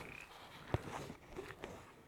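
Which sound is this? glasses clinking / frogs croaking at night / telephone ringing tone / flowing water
frogs croaking at night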